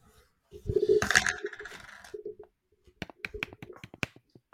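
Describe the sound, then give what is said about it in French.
Metallic knocks on a hollow microphone stand, first a ringing clang that hums briefly, then a quick irregular string of sharp taps with no voices. “Non, c'est creux, plein. Oh, il tape dedans.”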